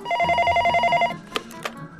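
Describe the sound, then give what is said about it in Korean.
A telephone rings while calling the restaurant Yeouido Wanggalbi Tongdak to order by phone, a steady, repeating electronic warble for about a second, then stops, followed by a couple of short clicks and faint background noise. “그렇다고 어플이 아닌 전화로 주문하잖아요?”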